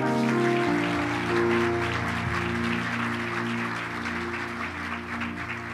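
An audience at a church service claps steadily and loudly throughout as an applause to the Lord, a dense crackle of many hands layered over sustained, held keyboard chords, with no voices speaking.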